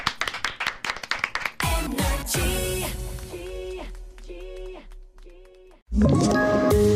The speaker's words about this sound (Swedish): du får en applåd av oss. Ja!